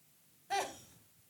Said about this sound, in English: Bless you, Mom.